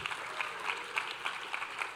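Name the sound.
audience applauding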